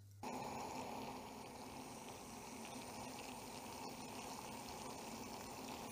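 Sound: water boiling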